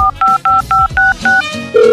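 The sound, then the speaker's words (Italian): A quick run of about seven touch-tone dialing beeps, evenly spaced and loud, each a short dual-pitch blip, followed by a steady tone as the call connects; the phone number of a home-delivery pizzeria is being dialed. “ma soprattutto c'è il numero di telefono della pizzeria che fa consegna a domicilio.”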